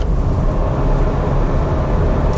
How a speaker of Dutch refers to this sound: Een dieseltje met een handbak het rijdt gewoon echt ontzettend ontspannen, makkelijk op koppel.